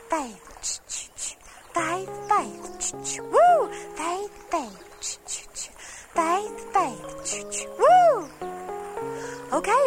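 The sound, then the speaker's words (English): Voices sing a song about a little train climbing a steep hill, imitating its chugging with rhythmic, breathy "ch-ch" bursts, mixed with sung, swooping vocal tones like a whistle; the imitation is lively, repeating in short patterns. “I want you to make a train sound like this.”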